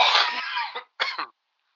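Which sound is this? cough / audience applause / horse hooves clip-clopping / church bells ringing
cough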